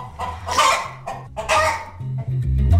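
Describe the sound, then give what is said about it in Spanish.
A crested hen of the old Andalusian moñuda or tufona breed clucks at Fegasur, the national livestock fair in Jerez, letting out two loud, raspy squawking bursts with softer low clucking murmurs in between, no people talking. “Bueno, pues pretenden recuperar, bueno, ya la han escuchado, a gallinas moñudas y tufonas.”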